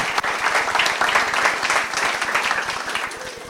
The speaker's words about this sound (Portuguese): Não posso deixar de mencionar que hoje é o Dia Internacional da Mulher. Parabéns a todas as mulheres. Muito bom, dá um aplauso.